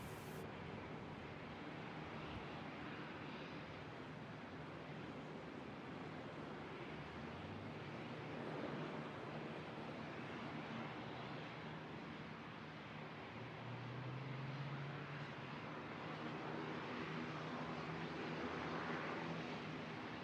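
A steady, broad roar of aircraft noise at an airport fills the night air, with low engine hums swelling and rising twice, as if jets are taxiing or throttling up. No one speaks.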